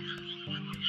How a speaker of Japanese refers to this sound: 田植えが始まるんでね、えー、カエルの大合唱ですよ。まあこれはね、なんか田舎の音ですよね。なんかカエルの鳴き声。まあほんと気持ちいい。